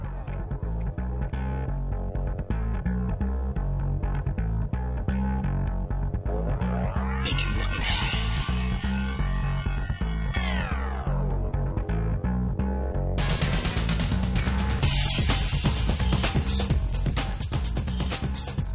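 Electronic instrumental soundtrack music plays loudly and steadily, with a pulsing beat and deep bass, swelling synth sweeps midway, then a brighter, denser layer kicking in near the end.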